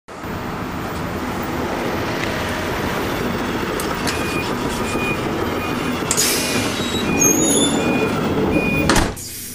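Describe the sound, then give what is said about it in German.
A train rumbles steadily past on the rails, with faint high wheel squeals and a brief hiss near the end before the noise cuts off abruptly. “Also die Schienen, die die hier bauen, also die werden bei der Deutschen Bahn, bei den deutschen Richtlinien nicht durchgekommen, das kannst du wissen.”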